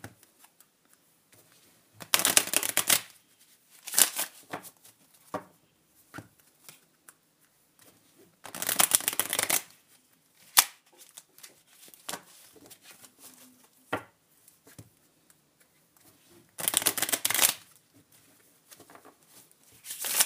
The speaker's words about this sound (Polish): Teraz tasuję karty, najpierw delikatnie, a za chwilę pojedziemy trochę ostrzej. Teraz będzie głośno.